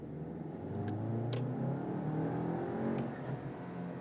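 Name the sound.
car engine revving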